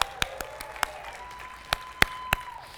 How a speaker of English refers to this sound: Paige is over in the preschool area. Can you cheer loud enough so that Paige can hear you all the way over in the preschool area?